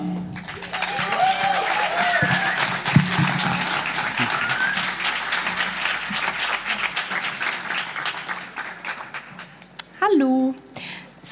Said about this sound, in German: Viel Applaus